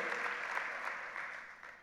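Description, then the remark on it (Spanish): A church audience claps for the Lord in a dense, steady wash of applause that holds strong and then tapers off gradually toward the end, with no voices rising above it. “Denle un aplauso fuerte al Señor porque sabemos que Él va a hacer grandes cosas hoy.”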